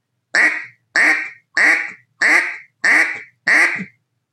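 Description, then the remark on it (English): Six loud, evenly spaced quacks blown on a duck call, each a short raspy burst with a slight downward trail, repeated at a steady rhythm with brief silences between and no talking. “and you can start perfecting that quack.”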